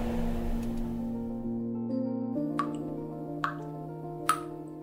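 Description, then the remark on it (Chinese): Three separate drips fall at a slow, uneven pace, each a bright plink, over a steady low humming drone with no talking. “往窗外一看，啊，好大好大的月亮，居然滴滴答答的融化了。”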